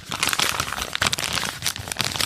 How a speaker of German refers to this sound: Es knistert anders, denn wir haben hier eine Papiertüte neuerdings. Und ich muss sagen, matter Druck, Papier, sieht auch, sieht, ich finde es sogar, es sieht wertig, wertiger aus sogar.